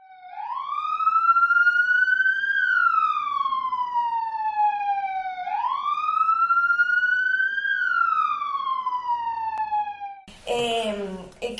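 A loud police siren wails in two slow rising-and-falling sweeps, its tone climbing then gliding down, before a voice starts talking right at the end.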